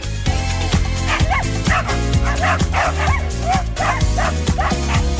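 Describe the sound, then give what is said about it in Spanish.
Small dogs bark and yip in quick repeated bursts, high-pitched, over a steady, dense musical backing that runs the whole time. “Y saca a los perritos también.”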